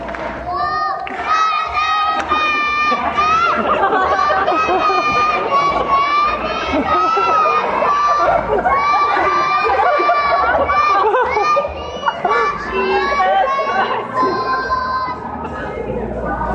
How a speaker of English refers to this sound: That's my son, by the way, who's shouting.